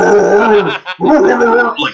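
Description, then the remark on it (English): A person loudly imitates a dog barking, two long, growly, voiced barks with a short break between them and no other talking. “But this is a very smart dog because this dog heard me, assumed I was talking shit, and started barking even louder, like”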